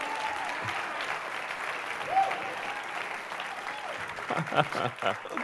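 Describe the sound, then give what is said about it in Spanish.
A church audience applauds God, praised as the one who has been faithful, with steady, dense clapping that swells toward the end, mixed with scattered voices and a brief rising vocal cry partway through. “Dale un aplauso al que ha sido fiel.”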